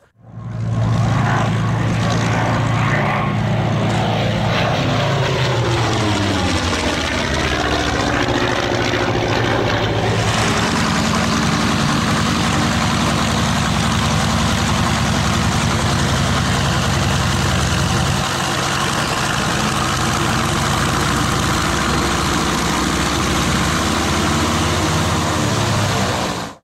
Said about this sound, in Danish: Det vi hører her, det er så vidt vides den eneste stadig flyvende originale Focke Wolf 190, som på det her tidspunkt i 1943 er det fly, som øh, britterne og vores øh, øh, danske landsmænd i allieret tjeneste øh, møder